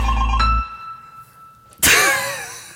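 A mobile phone ringtone plays from a phone lying on a desk with no one talking: a steady electronic tone cuts off, then after a short pause a loud, bright burst of sliding, chiming tones.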